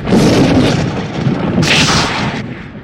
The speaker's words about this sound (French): C'est alors qu'un éclair déchire le ciel.